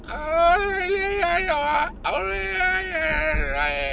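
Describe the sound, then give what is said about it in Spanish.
A loud, drawn-out primal scream of frustration: one wailing, strained cry held for about two seconds, a brief catch of breath, then a second sustained howl that wavers in pitch. “Ese es el grito primario de estoy hasta los buitos.”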